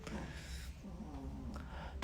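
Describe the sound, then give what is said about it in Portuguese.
A dog named Yuquinha, lying on a person's lap, snores loudly, a rough, raspy rumble that keeps going with little pause through the whole moment. “Ela tá deitada aqui no colo do, do e tá roncando alto. Parece uma Brasília velha.”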